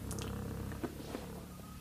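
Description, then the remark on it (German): A pet cat purrs, a steady low rumble with a soft pulsing rhythm that holds at an even level throughout, along with a couple of faint rustling touches. “Jetzt kommt meine Katze.”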